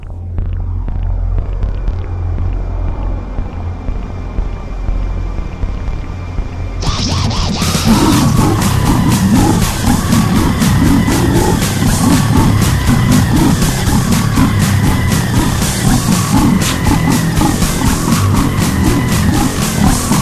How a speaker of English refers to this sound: But Actually, I want to put on a little bit of this because I was listening to it before when you sent it to me, and it's it's a breakcore release. It's extremely relevant, I believe.